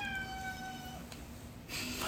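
A cat gives one drawn-out, high-pitched meow lasting about a second, then fades into soft background noise with a brief rustle near the end.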